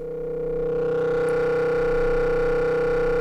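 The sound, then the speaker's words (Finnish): A sustained drone from the Serke analog modular synthesizer holds one steady mid-pitched tone layered with buzzing harmonics, swelling in slightly at the start and then staying constant and fairly loud, with no voices. “Analogisia syntetisaattoreita ei voi täysin hallita.”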